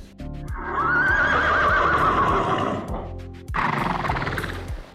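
A horse neighs loudly, a long shaky whinny that rises and trembles, followed after a brief pause by a second shorter, breathy whinny.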